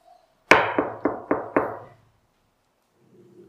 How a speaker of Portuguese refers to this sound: a pessoa bateu na porta da carruagem